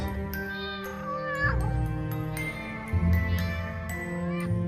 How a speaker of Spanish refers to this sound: Era una noche fría cuando cerca de la ventana de Luis maullaba un gato.